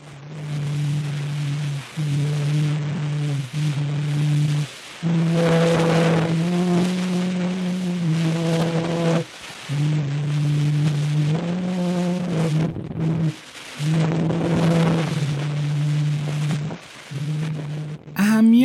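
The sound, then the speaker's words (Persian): A muffled, garbled playback of the earliest recorded sound in human history, a phonautograph recording whose traced image was turned into sound by computer. A single voice sings a slow, wavering melody in short phrases, buried under steady hiss and rumble. “با استفاده از کامپیوتر اومدن اون اواجی رو که روش به تصویر در اومده بود به صدا تبدیل کردن و به این ترتیب اولین صدای ضبط شده در تاریخ بشر قابل شنیدن شد میخواید این صدا رو با هم بشنویم ها خیلی گنگ و نامفهومه ولی خب شنیدنش حس خوبی داره”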